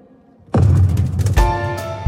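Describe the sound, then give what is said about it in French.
Two loud cannon-like booms on a square in central Perpignan, where several dozen people gather and some fall to the ground symbolically at the sound; the first comes after a brief quiet pause and the second under a second later, each leaving a heavy rumbling reverberation and a faint ringing tail. “Au son du canon, certaines personnes tombent à terre, symboliquement.”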